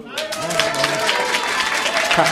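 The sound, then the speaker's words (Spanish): A General Assembly audience claps steadily and loudly to approve a proposal by acclamation, a dense patter of many hands sustained throughout, with a voice and some crowd murmur mixed in underneath. “Por favor, aplaudan.”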